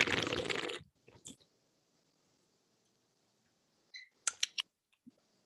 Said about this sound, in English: Well, let, hold on. Let me take a sip real quick.